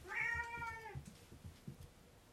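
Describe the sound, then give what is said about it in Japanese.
A single drawn-out cat meow, clear, lasting about a second, as the cat wanders around, followed by soft low thumps and rustling. “うろうろしてる。うん。うるさいって言われました。”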